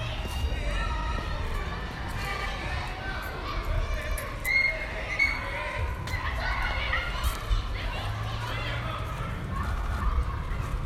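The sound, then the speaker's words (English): A lively crowd of children plays, their overlapping chatter and high-pitched shouts rising and falling over a steady background bustle, with a few sharper yells standing out. “So, uh, after we listen to these rotten, lousy kids at play,”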